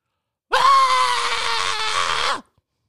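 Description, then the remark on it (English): A voice imitates a woman's scream: one loud, shrill, sustained shriek lasting about two seconds, steady in pitch before cutting off abruptly, with no talking during it. “Then she screamed.”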